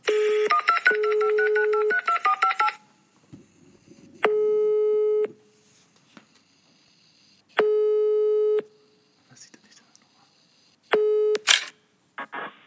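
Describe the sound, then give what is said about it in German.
A quick run of electronic telephone dialing tones, followed by three long, steady ringback tones separated by pauses, with faint clicks and handling noise between them and at the end. “An Anruf, Anruf starten.”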